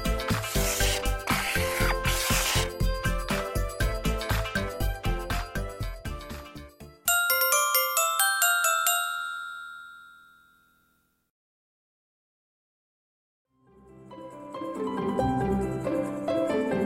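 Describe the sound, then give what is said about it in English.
A bright metallic clink of a penny dropping into a coin bank rings out and slowly fades, following a stretch of quick rhythmic tapping; a brief silence comes before a duller rustle. “in my bank, one penny goes clink.”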